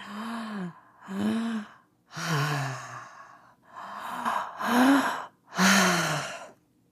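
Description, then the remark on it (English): Two quick, audible inhales followed by one longer, sighing exhale, with the same pattern repeated right after, demonstrating a connected breathing exercise with no pausing or breath holding. The breaths are fairly loud and slightly voiced, with no talking. “It's just two inhales, then an exhale, then two inhales, then an exhale.”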